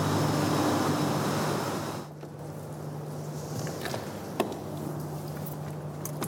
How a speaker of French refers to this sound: On reprend la voiture pour remonter à la surface, à l'abri du grondement généré par la puissance de l'eau.